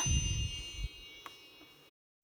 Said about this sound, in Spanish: Ellas estaban muy asustadas y Alba también, cuando de pronto se escuchó el sonido de su varita mágica.